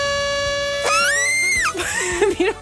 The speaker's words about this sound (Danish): Vil du have truthornet? eller den lille plastikmundharmonika? Helt klart. Truthornet, tak. det er virkelig et nederen horn.